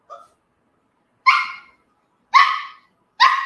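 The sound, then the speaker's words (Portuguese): A dog barks three times with pauses between, sharp, after a faint short whine at the start. No one speaks. “Pode latir, morder não.”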